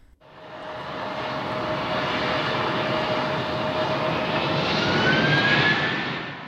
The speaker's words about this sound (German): Im Elendsviertel San Francisco ist donnernder Flugzeuglärm allgegenwärtig. Die staubige Siedlung, an deren Rändern sich Abfall türmt, befindet sich direkt am Flughafen von Cartagena.